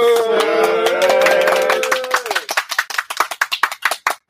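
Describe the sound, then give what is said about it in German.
A small live audience at the FeenCon 2022 convention applauds over a fading musical tone, the clapping dense at first, then thinning into a few scattered, distinct hand claps before stopping. “Danke ans Publikum. Einmal Applaus.”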